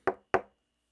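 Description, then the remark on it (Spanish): Two firm knocks on a wooden office door, spaced evenly apart, clear with a short decay after each, then silence. “Me acerco a tocar la puerta.”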